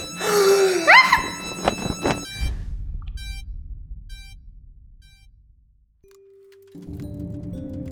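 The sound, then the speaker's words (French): A rising electronic whine charges up, then a sharp thump-like discharge of a defibrillator shock, followed by a few spaced electronic beeps and a steady tone. “veuillez utiliser le défibrillateur à votre gauche.”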